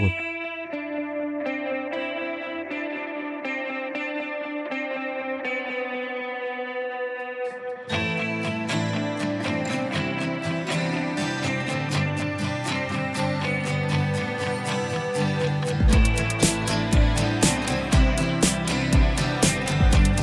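A song with a sparse, melodic intro that bursts into a full, effects-heavy band sound partway through, then builds further with pounding drums toward the end. No one talks over it.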